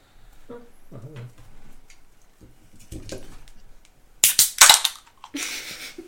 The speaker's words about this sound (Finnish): Eli just champagnepulloa, mitä voisi boksauttaa silleen.